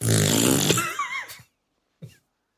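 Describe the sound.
A man blows loud, buzzy raspberry fart noises against a woman's belly, one long sputtering blast of about a second and a half, then a short puff after a brief pause.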